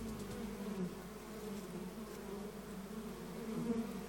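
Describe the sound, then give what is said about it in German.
Bees buzz steadily around in summer, a continuous droning hum that swells slightly as they move around, with no voices present. “Die einen laufen dann schreiend und mit den Armen fuchtelnd in Panik weg, andere bleiben ganz cool und völlig ruhig dabei, wenn die Bienen um einen herumsurren.”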